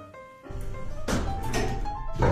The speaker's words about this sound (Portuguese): As portas se abriram no quinto andar